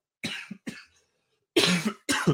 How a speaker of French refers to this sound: Voilà, tu vois, tu aurais fait comme moi, tu aurais pris un thé avec du miel, ben, tu n'aurais pas toussé.